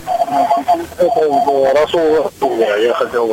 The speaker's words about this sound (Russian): Вы не могли бы э, отключить приемник, потому что эхо